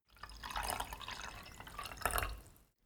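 Coffee is poured into a cup in one steady stream lasting a few seconds, with a brief surge near the end before it stops. No one speaks.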